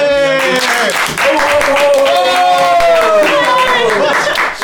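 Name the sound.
applause and clapping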